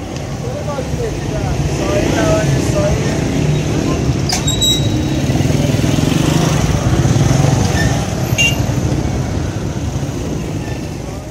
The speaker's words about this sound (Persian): ماشین جلویی پیچید و کنار رفت چراغ سبز بود و آقای هیدری گاز داد و با سرعت از چهار راه ویلا گذشت